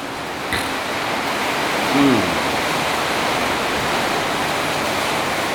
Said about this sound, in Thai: ฝนตกใช่ไหม